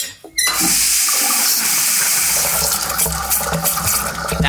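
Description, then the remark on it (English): After a short quiet moment, a faucet in an out-of-date kitchen with relatively new pipes is turned on during a house showing, and rust-red water gushes out in a loud, steady, hissing stream that runs strongly to the end, with no voices. “I believe the pipes are relatively new. Let me just uh, turn this one on.”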